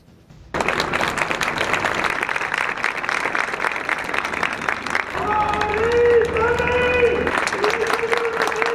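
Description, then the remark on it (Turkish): A crowd at a ceremony at Anıtkabir breaks into sustained applause after a brief quiet start, dense clapping that continues steadily. Midway, civilians' raised voices chanting slogans in unison for President Erdoğan rise over the clapping, with sustained tonal shouts. “Yine Anıtkabir'deki törende Cumhurbaşkanı Erdoğan'a sloganlara alkışlar yükseldi.”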